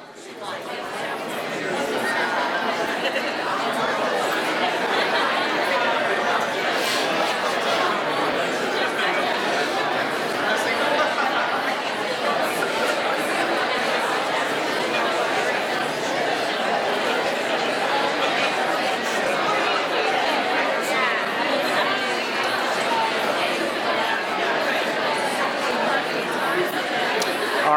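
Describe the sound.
Audience members talking in pairs, each sharing a one-word description of their workplace climate, in a steady, dense murmur of overlapping conversations with occasional laughter, lasting 30 seconds at an even, fairly loud level.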